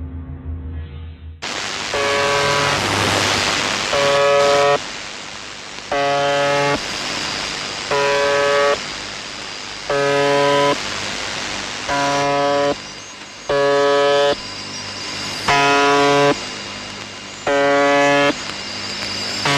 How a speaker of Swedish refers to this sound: UVB 76 sänder än idag och går att lyssna på live via internet. Men här kan ni kära lyssnare lyssna på den.